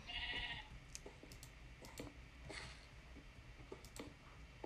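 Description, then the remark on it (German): A sheep in a cave in a video game bleats twice, a short nasal call at the start and a fainter one midway, over quiet background with scattered light clicks. Nobody speaks. “Hier ist ein Schaf in der Höhle, okay.”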